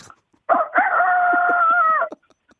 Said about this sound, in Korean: 뭔가요 지금? 왜 이렇게 시끄러운가요? 닭이 너무 시끄럽네요.